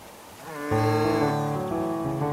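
A drawn-out animal call, lambs bleating among grazing cows, rings out loud for a couple of seconds with no one talking.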